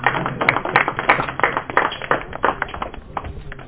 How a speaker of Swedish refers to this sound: Ge henne en applåd för Farfisa-orgeln.